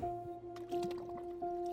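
Soft watery splashes and drips from a kayak paddle dipping through calm water as a 19-year-old kayaker paddles closer at Kajplads 560, Islands Brygge, Copenhagen, Denmark; a few gentle strokes, with a steady tonal hum running underneath.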